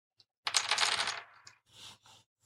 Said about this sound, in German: Und jetzt würfel ich mal für mich.